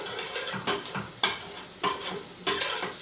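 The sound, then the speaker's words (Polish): Onions glazed in butter sizzle steadily in the pan with two tablespoons of added oil while a utensil stirs them, making four regular scraping sweeps about half a second apart, with no one talking. “Cebulka powinna być mocno zeszklona, ale nie może być spalona.”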